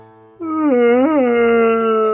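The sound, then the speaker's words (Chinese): A long, drawn-out yawning groan from a single voice while stretching, starting abruptly, swelling upward in pitch midway, then settling into a steady sustained moan for nearly two seconds. “我刚刚那个不是打打哈欠哦，我只是在伸懒腰而已。”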